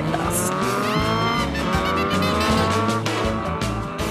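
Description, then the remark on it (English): Loud motorbike engines race and rev up and down in pitch, with tires squealing over the roar, a dense, continuous burst of racing noise with no talking. “They dressed in denim jackets and raced around on motorbikes”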